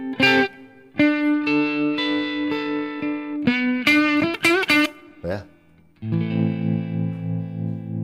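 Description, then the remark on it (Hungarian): An instrument run through a dynamic phaser stereo tremolo effect whose tempo changes with playing dynamics, mid and low ranges repeating differently, with light filtering: loud, sustained notes swell and pulse with a sweeping, wavering tone, then a brief dip before a lower, buzzy note holds to the end. “Van egy enyhe filterezés is, ezért egy ilyen furcsa, dinamikusan tempót változtatható, fézörös sztereotremelő lényegében.”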